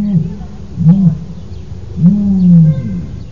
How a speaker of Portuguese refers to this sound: Eu estou apostando agora nesse, nesse projeto em comportamentos, por exemplo, como o da que eles chamam de booming da avestruz, né? Que ele faz um som no papo dele